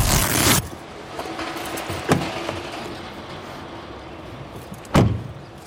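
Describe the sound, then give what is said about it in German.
A car someone has just arrived in idles with a steady low rumble, framed by a loud whoosh at the start and two sharp thuds like car doors shutting. No one speaks. “Was für ein Auto kommst du denn angereist?”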